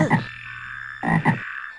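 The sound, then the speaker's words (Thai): A toad croaks in three short, throaty bursts, one at the start and then a quick pair after a pause, against a faint steady background hum. “ฉันเป็นคางคก แล้วเธอก็จะต้องมาเป็นภรรยาของฉัน”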